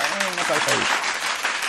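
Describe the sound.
A burst of applause sound effect, dense and steady clapping at full volume throughout, with voices calling out over it during the first half.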